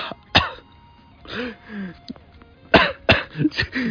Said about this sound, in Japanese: 咳込みまで始めた、おいおいおい